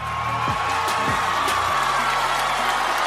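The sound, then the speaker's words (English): A crowd boos loudly and steadily after Kanye West came on stage during an acceptance speech for Best Female Video, a dense roar of many voices with low, drawn-out tones rising and falling throughout, without a break. “Boos from the crowd, a stunned look from Beyonce, a pop culture scandal playing out in real time.”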